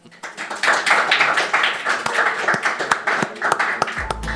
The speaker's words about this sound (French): Sous vos applaudissements et vive Toulouse